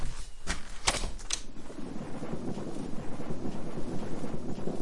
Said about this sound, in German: Gewitter. Wusste ich's doch.